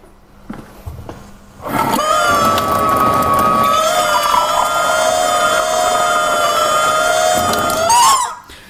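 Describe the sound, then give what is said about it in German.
A rubber chicken toy built into a modified water tap lets out one long, loud, continuous squeal lasting about six seconds as a glass of water is drawn: a steady high-pitched honk with a gurgling, bubbly edge, ending in a brief rising squeak. “Wir haben ja eine Tierart entdeckt, das ist das Wassergummihuhn.”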